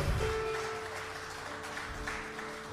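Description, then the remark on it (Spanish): A church audience claps steadily and continuously in applause to the Lord during worship at a 60th anniversary celebration, a dense wash of applause that holds at an even level throughout, with a sustained musical note lingering beneath it. “Denle un fuerte aplauso al Señor, déselo más fuerte.”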